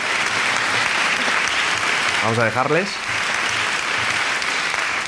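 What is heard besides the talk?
applause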